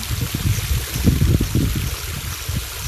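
Steady rushing water of a waterfall flows continuously, a dense wash of splashing with soft low gurgles rising and falling underneath, with no voices.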